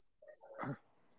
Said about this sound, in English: I hear barking, yo. Yeah, it's a, that's my neighbor's dog.